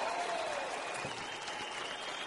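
An audience claps steadily and densely for a couple of seconds to welcome a speaker at an organization's event, a continuous wash of hands with a faint whistle-like tone running through it and no voices.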